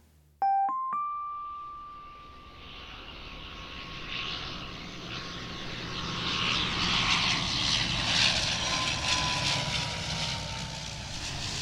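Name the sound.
airplane landing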